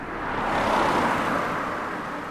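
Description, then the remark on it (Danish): Steady road traffic noise outdoors in the village of Dømmestrup, south of Odense on Funen, Denmark, just after getting off a bus, a vehicle swelling closer and rumbling past before settling back into a continuous roadway hum. No voices are heard. “Jeg er steget af bussen i Nørre og er netop kommet ind i nabobyen Dømmestrup,”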